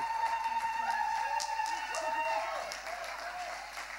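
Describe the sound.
A morning gathering applauds to welcome a woman coming up to speak, a dense, steady wash of many hands clapping, with a few voices and sustained tones underneath, easing off slightly toward the end.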